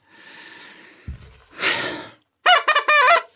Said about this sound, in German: Das ist so eine Art, ich mache mit der Vuvuzela erstmal einen Tusch dass, dass sie sich trauen, das zu erwähnen.